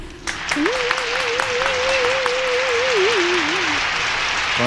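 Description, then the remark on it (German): A crowd applauds with dense, steady clapping that fills the whole clip, while a single wavering tone, like a sustained whistle or hummed note, rises and warbles above it for several seconds; the applause is for the moderator. “Applaus für den Moderator.”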